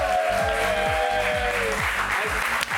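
An audience applauds steadily, a dense wash of clapping that holds for the whole stretch, with a low rhythmic musical thump underneath and a brief sharp knock near the end.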